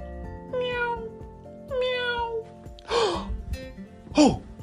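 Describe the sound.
A cat meows four times in a row, each call drawn out and sliding downward in pitch, the later ones sharper and more urgent, with no talking.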